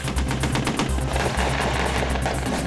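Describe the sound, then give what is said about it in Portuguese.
Rapid bursts of military gunfire crackle continuously, dense automatic shots overlapping with low rumbling booms, loud, with no voices present, from a joint Brazilian and American military training exercise in São Paulo and Rio de Janeiro, with artillery, mortars and cannons. “Toda artilharia em defesa do território morteiros, canhões.”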